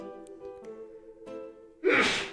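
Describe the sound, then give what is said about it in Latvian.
A single sharp, loud sneeze bursts out near the end, after tea went up the nose, preceded by a drawn-out, wavering intake of breath as it builds up. No talking, just the one explosive sneeze. “Tā degunā ieskrēja. Tā tēja.”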